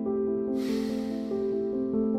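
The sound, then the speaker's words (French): A slow, airy exhale through the nose starts after a brief moment and gradually fades, over a soft, steady musical drone with no talking. “Expire.”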